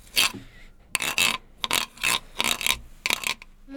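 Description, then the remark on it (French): A wooden rasp instrument imitates a frog's croak with a series of about eight quick, ragged scraping strokes in an uneven rhythm. Fairly loud, with no voices. “Ah vas-y, fais-nous entendre la grenouille.”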